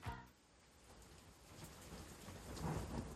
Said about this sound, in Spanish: Está lloviendo.